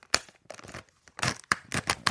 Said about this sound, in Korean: 자 지금 이제 팥빙수 포장된 거 뜯는 소리입니다.